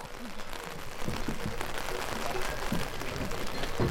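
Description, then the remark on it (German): Rain falling in a steady, hissing wash of sound, with scattered sharper taps of drops striking a surface, holding an even, moderate loudness throughout, during field sampling on a lake fed from the Piora basin. “Und apropos Regen, der kommt jetzt doch noch.”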